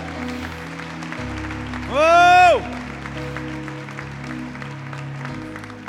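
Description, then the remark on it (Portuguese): Congregation applause during a church sermon, a steady patter of clapping over a low hum, broken midway by a loud, drawn-out vocal exclamation that rises and falls in pitch. “Pode aplaudir você que começou aí.”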